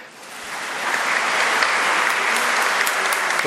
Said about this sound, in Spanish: Un aplauso al ladrón.